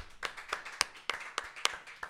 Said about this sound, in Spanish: Ey, un aplauso, un aplauso.